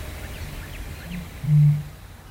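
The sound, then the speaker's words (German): A deep, hollow boom from a Eurasian bittern sounds once, a short low foghorn-like hoot preceded by a faint intake, recorded at midnight in a marsh, with other birds chirping in the background. “Man hört das kleine Sumpfhuhn, Graugänse, Wasserrallen, Blässrallen, einen Höckerschwan, Teichrallen und die Rohrdommel. Sie hört sich so an.”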